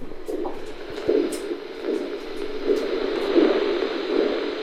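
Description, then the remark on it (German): Ultrasound recording of a loggerhead sea turtle's heartbeat: soft, muffled whooshing pulses repeating at a slow, steady rhythm beneath a constant layer of static hiss. “Das ist der Herzschlag einer unechten Karettschildkröte, genau.”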